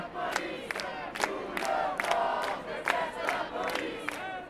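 A large crowd chants and shouts together at a street demonstration on the square in front of an opera house, voices rising in steady repeated bursts with sharp peaks, loud and sustained throughout.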